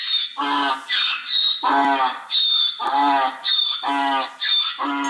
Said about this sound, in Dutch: Senti l'asino? Te lo faccio vedere. Si trova nel cortile del Palazzo Pitti, dall'altra parte del giardino.